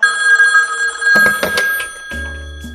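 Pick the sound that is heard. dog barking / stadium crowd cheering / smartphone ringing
smartphone ringing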